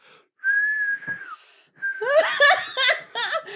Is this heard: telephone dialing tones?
no